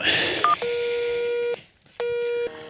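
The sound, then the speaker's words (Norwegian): Phone keypad tones as a number is dialed for Norsk trekkspill- og våpenbeholdning in Enebakk: a quick beep, then two longer, steady electronic tones separated by a brief silence, fairly loud over a faint background hiss. “Eh, ring dette nummeret til Norsk trekkspill- og våpenbeholdning på Enebakk.”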